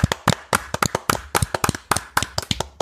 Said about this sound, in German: Klatschen bitte. Allesamt. Da war Applaus verdient.